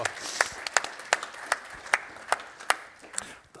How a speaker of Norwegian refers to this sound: Vi må gi han en god applaus.